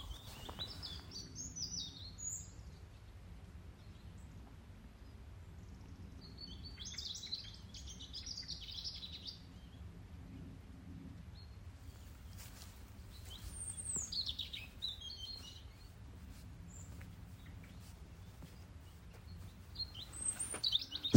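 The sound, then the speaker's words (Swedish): Birdsong outdoors in a forest at Söderåsen during a walk, with bright chirping phrases coming in repeated bursts over a steady low rumble of wind or ambience; no one speaks. “Eh, helt underbar dag och jag vill förmedla denna underbara fågelsång som vi hör här.”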